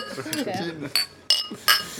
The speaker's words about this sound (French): Ben, génial, et eh ben, on peut trinquer même avec un verre vide au premier numéro du coup.